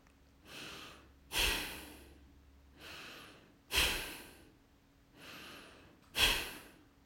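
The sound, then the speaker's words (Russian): Three breath cycles, each a soft, gentle inhale followed by a sharp, forceful exhale that bursts out louder, evenly paced, with no talking. “Сделаем три вдоха и выдоха. Вдох легкий, а выдох форсированный.”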